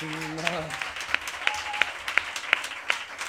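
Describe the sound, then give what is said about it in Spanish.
An audience applauds loudly as a performer is introduced on stage at a live show, in a dense, steady wash of clapping, with sharper claps cutting through at a regular rhythm. A voice is briefly heard at the very start. “Fuerte aplauso”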